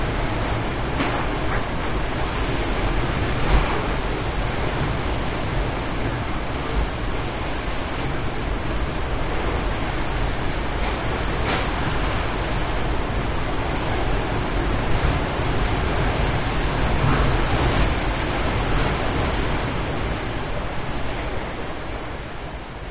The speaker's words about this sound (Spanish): Lo que estás escuchando es el sonido del viento durante las primeras horas del 25 de octubre del 2023, el momento en que el huracán Otis estaba entrando a Acapulco, en la costa del estado de Guerrero.